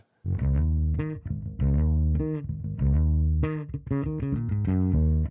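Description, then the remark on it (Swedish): An electric bass guitar played through a bass amplifier plays short phrases of sustained low notes with bright, buzzy overtones, pausing briefly between phrases. It sounds loud and effect-laden, with no voices. “Jag slår bara igång basstärken här och så hänger jag på med basen och så, så basar jag lite grann.”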